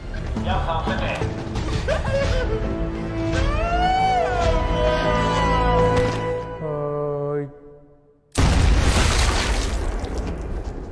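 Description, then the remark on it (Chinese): Tonal, voice-like sounds fade into a brief hush, then a sudden loud gunshot blast erupts in a zombie film scene and harsh, noisy crackling continues to the end. “听到枪声之后，幸存的长毛和管理员也和英雄他们会合，但此时的众人已经被丧尸团团包围。”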